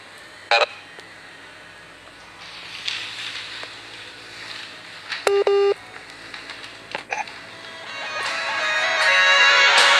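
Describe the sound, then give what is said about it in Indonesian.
Short electronic telephone dialing tones sound at intervals as someone phones another person, including one longer steady beep midway, over a constant background hiss that grows louder toward the end. No one speaks. “saya ini ya nggak apa-apa saya nelpon aja anda barusan”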